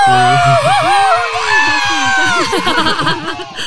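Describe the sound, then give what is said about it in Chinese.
A crowd-cheering sound effect, played to welcome a special guest, with many voices overlapping loudly for nearly four seconds in a dense, excited roar with high-pitched shouts and whoops rising above it, easing slightly toward the end. “音效组，对不对？”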